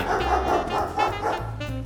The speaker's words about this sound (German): und dem verrückten, ewig kläffenden Hund Nobby.